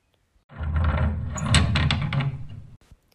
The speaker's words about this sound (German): Dort konnte er rüberklettern und das Tor von innen öffnen.